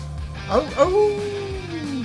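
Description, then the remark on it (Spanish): A person imitates a wolf howl: a couple of short yelping rises, then one long, sustained wavering tone that slowly falls away, loud and clear with a faint steady hum beneath. “Y nos acompaña el señor de los aullidos, el señor más cachondo de la zona de cumbres elite”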